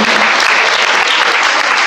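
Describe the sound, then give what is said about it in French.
A crowd applauds the Virgin Mary and the Lord after praying a rosary, loudly and steadily, many hands clapping in a dense, continuous wash of sound with no voices on top. “On peut applaudir la Vierge Marie, le Seigneur.”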